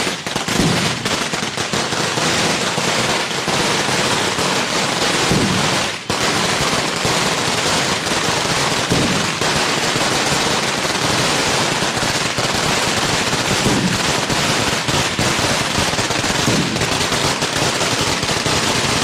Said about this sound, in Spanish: Oímos esa algarabía de los cohetes.